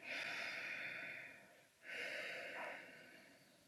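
A deep, drawn-out demonstration breath in, loud, airy and hissing, followed after a brief pause by a second long breath with no talking.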